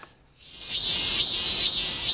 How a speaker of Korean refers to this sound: 그래서 밖에서 이 참매미와 말매미 울음 소리를 준비했다고 하는데요. 먼저 참매미 소리부터 좀 들어볼까요?